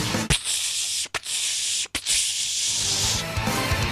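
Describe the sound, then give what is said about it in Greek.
Air hisses steadily out of a deflating tire, a loud, breathy rush broken by a few brief cut-offs before continuing, with no voices over it. “Εμεί δεν θέλουμε αυτό, θέλουμε του ξεφουσκώματο.”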